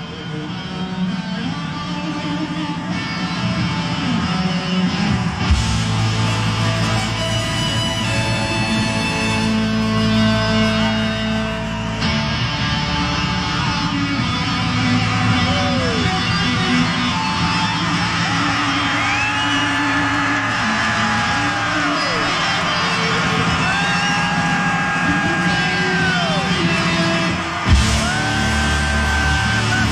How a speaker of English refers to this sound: and just listen to the crowd go nuts when they finally embrace.